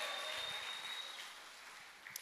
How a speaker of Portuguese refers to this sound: Se, se você acredita nisso, dá, dá um aplauso aí, dá um grito de glória a Deus aí.